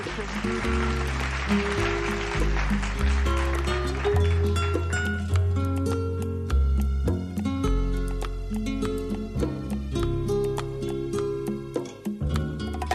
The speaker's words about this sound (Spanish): así que vamos a escuchar un poco eh, una canción que representa a Gijón, que toca muy de cerca el sentimiento de los gijoneses,